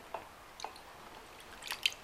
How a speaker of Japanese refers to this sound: やべえいろいろこぼれた ちょっとっていろいろこぼれたわあのねこれカフェベースボフボスのさ割るだけボスカフェってやつねこれ愛用してるって話前にもしましたけどこれが好きなんだけどさ今それをねそれのアーモンドラテってやつ最近見つけたやつ買ったんだけどこのアーモンドラテをこぼしました